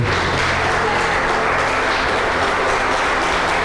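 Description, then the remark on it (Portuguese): A church audience bursts into sustained applause for God, a dense, steady wash of many hands clapping at once, loud and even throughout with no voices standing out. “Essa palavra merece um aplauso, não merece, irmão? Aplaude a Deus por isso.”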